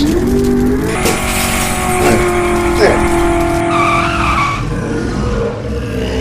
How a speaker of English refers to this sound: We're six stories up? How did a self-driving muscle car make it through the fucking window?